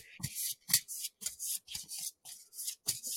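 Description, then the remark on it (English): A tarot deck being shuffled: a steady run of crisp, papery riffling bursts, about eight quick strokes in a row with short pauses between them, and no talking. “Okay, so I'm going to shuffle here.”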